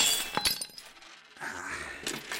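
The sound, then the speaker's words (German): A piggy bank named Schweini being smashed open to get at the money inside: a sharp crash with shattering, then scattered clinks and rattling debris, and a second burst of breaking near the end. No one speaks. “Ich, ich muss an das Geld ran. Hilft alles nichts.”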